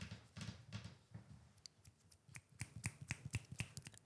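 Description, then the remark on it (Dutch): Light fingertip taps on a tabletop: a few soft, dull knocks at first, then a quick, irregular run of sharper clicking taps. Quiet overall, with no voices. “En tik op de tafel.”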